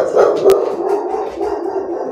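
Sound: dogs barking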